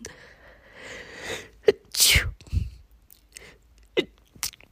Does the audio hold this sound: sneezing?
yes